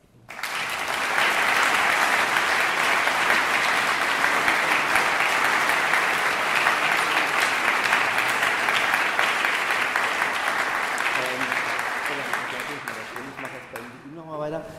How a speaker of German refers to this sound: Das ist dein Applaus.